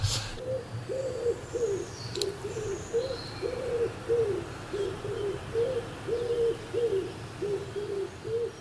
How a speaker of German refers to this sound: Falls ihr euch wundert, im Hintergrund die Tauben und die Vögel. Wir sitzen draußen.